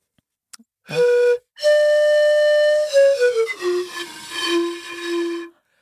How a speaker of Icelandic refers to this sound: Hún er að ná í eitthvað í bakbókan. Já, hún er að ná í panflutuna, já, við veitum.